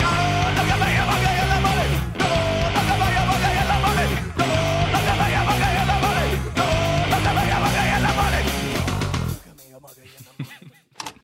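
A loud, dense rock song from an album plays with a full band sound, briefly cutting out a few times before the music drops away to faint, scattered sounds in the final seconds.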